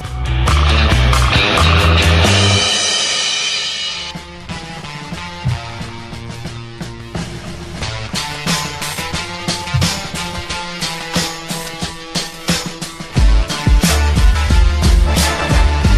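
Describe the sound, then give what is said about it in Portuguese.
Audio from the PSP handheld video game GTA 3, Liberty Stories, of a car driving: a loud, roaring engine surge for the first few seconds, then steady driving noise mixed with a dense, rhythmic, music-like pulse throughout, with no talking. “E é o som de um dos melhores jogos de portátil GTA 3, Liberty Stories.”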